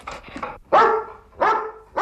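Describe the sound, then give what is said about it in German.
A trained coronavirus detection dog barks loudly after sniffing out a positive coronavirus sample: three sharp barks spaced evenly apart, preceded by a few softer, quicker yips, with no one talking. “Wenn ein Corona-Spürhund eine positive Corona-Probe erschnüffelt, dann ist die Freude groß. Beim Hund und beim Ausbilder.”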